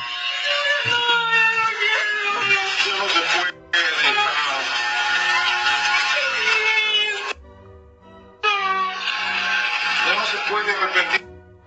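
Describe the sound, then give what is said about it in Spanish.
A girl cries and wails loudly in long, high, wavering sobs, three sustained bursts separated by brief pauses, with a low steady buzz running underneath, while her father shaves her head. “un hombre rapándole la cabeza a su hija, quien llora mientras le quitan el pelo”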